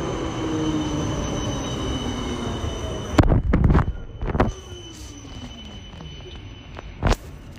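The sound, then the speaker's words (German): A Line 4 tram rolls past at the tram connection of Erfurt airport in Germany with a steady low rumble, its wheels letting out sustained high squeals, followed by a few loud clanks and rattles as it goes by. “Jetzt wird es ein bisschen ja. da Straßenbahn kommen.”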